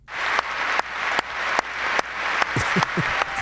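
A crowd applauds steadily after a speech while the speaker himself claps much louder, very near the microphone, sharp regular claps standing out above the dense background clapping.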